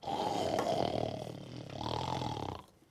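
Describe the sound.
A lion's deep, rumbling roar rolls out in two swelling surges, loud, then cuts off abruptly after a few seconds, with no talking.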